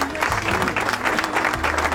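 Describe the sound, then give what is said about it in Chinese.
Steady audience applause in tribute to the families of medical workers fills the whole stretch, a dense wash of many hands clapping at an even, sustained level with no pause, no voices standing out above it. “也是蛮辛苦的哈，医护人员的家属，掌声致敬。”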